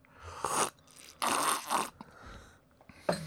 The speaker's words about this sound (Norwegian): Er det? det gjør seg uh, veldig dårlig på, på lydbånd, som nå. Slurping og slafsing.